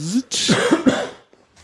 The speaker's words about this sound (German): kommt gleich der Hustenanfall. Äh, ja. Anfall war das.